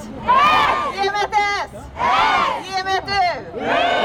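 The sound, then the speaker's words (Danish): A large group of young people in Uppsala chants loud, rhythmic shouted syllables in repeated bursts, answering a woman's megaphone call-and-response ("Give me S!") with strong, sustained group voices. “Så tog hun en megafon ud af hånden på den ene af dem, og så begyndte hun ellers at råbe til dem.”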